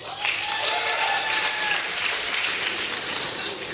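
A crowd applauds steadily, a dense wash of many hands clapping at once, fairly loud and sustained with no pauses, maybe a faint voice buried in it.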